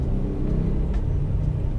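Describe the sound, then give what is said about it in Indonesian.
A steady low rumble of road traffic with cars and motorbikes, engines droning with no clear breaks or individual pass-bys, continuing evenly with no one speaking. “Oke lagi gue nih di jalan sekarang ada orang yang naik mobil ada orang yang naik motor nah bagi lagi ada yang orang yang naik motor metik ada orang yang naik motor gigi”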